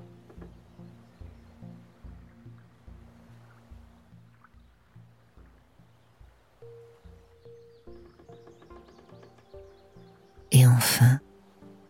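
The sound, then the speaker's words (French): Soft water laps in a steady, gentle rhythm around a wooden pontoon over a low humming tone, then a sudden loud, rushing burst breaks in briefly near the end before the quiet lapping returns. “Puis, petit à petit, écoutez le clapotis de l'eau autour de vous.”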